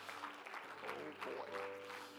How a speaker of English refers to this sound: Does anybody feel joy in the house of the Lord here today? Can you clap your hands once again and can you give God praise?